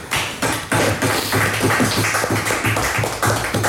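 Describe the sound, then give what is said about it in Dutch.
Rinus Israël clapping his hands above his head in steady applause for a column by Bert Dijkstra, several seconds of dense overlapping claps at a fairly loud level, with no talking over it. “Ja, wat de mensen niet zien is dat Rinus Israël hier boven zijn, boven zijn hoofd applaudisseerde voor deze ja. column.”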